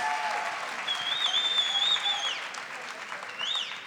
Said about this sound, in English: So let's give him a round of applause as he enters on the stage.